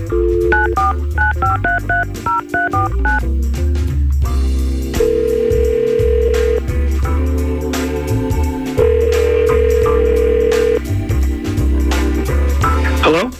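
A quick run of about a dozen touch-tone dialing beeps as radio station Y100 phones a listener, then two long steady ringing tones with a pause between, all over a loud, busy backing track.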